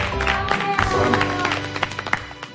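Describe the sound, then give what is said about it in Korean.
A studio audience on a TV show applauds a guest at the host's request, a dense wash of many hands clapping steadily for the whole stretch, with a few sharper individual claps popping out near the end over a low, sustained background tone. “우리 다시 한번 큰 박수 부탁드리고 네, 열심히 들으시기를.”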